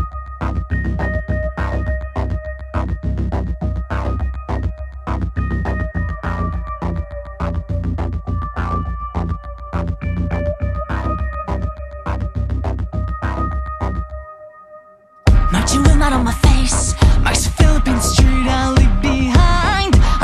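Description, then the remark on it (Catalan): A song with a steady pulsing beat and sung vocals plays loudly, dips briefly to near silence, then bursts back in with a fuller, brighter section. “està molt treballat, cada nota que sona està molt currada, cada tornada, cada lletra de la cançó està perfectament estudiada. Si no t'ho creus, ara la podràs escoltar.”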